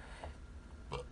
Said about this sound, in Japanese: すいません。ゲップしちゃった。下品。すいません。すいませんね。はい、ちょっと、あの、み、あのー三ツ矢サイダーで我慢できなかったですね。ごめんなさい。収録中に炭酸良くないね。もうゲ、ゲップ出ちゃうよ、これ、やばいやばい。